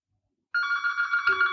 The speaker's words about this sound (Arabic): رن رن التليفون القديم